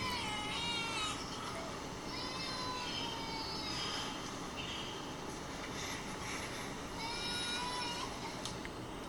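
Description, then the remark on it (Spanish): A baby crying in a room, thin wavering wails coming in three separate bursts, partly buried under a steady, loud hiss of background noise. “literal, en el cuarto se ve un bebé llorando, se escucha un bebé llorando.”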